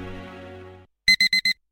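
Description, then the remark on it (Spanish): An alarm clock goes off with four quick, evenly spaced electronic beeps, loud, right after a steady buzzing tone cuts out. No one speaks. “Apuntarse al para ir a las 6 de la mañana es para pensárselo. Pasarse al Seat León híbrido con Seat Flex es tan fácil como posponer la alarma.”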